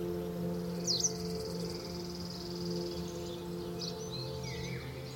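birds singing

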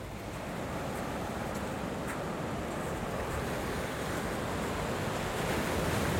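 sea waves

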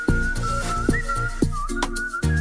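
human whistling

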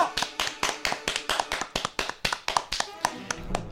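applause

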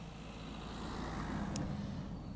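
car passing by

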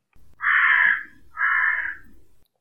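carrion crow cawing

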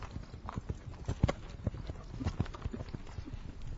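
horse hooves galloping

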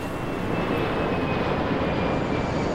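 airplane engine in flight

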